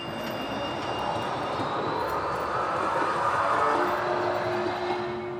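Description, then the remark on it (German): A passenger train to Leipzig, coming from Binz, rolls steadily along the rails with a continuous broad rumble, a faint metallic whine running through it, and no voices. “Der Zug nach Leipzig kam aus Binz.”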